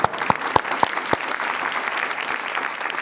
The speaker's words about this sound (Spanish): Un aplauso.